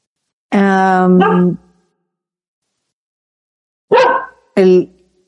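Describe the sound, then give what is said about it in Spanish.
A dog, Nakio, barks loudly: one long, drawn-out bark, a pause, then two shorter barks in quick succession, with no talking. “ay, perdón, que Nakio está ladrando.”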